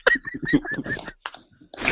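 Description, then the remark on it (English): A fairly loud run of nasal, raspy quacks in quick succession, followed after a brief pause by a few more choppy bursts and a rising hiss at the end. “What, what kind of quacking is going on over there, man?”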